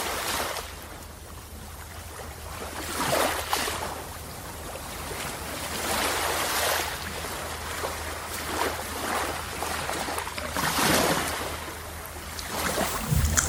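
Ocean waves wash onto the shore in steady, overlapping surges, each swell rising into a broad hiss of foam and receding, with a low constant rumble underneath and no voices.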